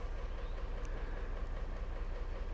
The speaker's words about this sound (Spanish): Ok, si estás escuchando es un efecto especial. Los motores se están calentando.